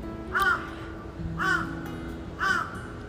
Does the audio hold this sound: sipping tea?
no